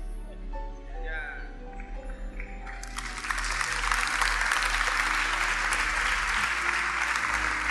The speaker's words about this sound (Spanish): Qué bien que usted me aplaude. Me está aplaudiendo a mí, ¿verdad?